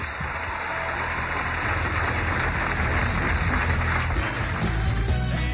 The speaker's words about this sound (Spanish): Recibamos con un fuerte aplauso a don Arturo Calle. Bienvenido, señor.